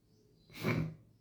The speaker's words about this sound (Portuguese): Tava vindo um espirro aqui, perdão.